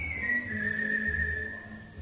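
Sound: human whistling a melody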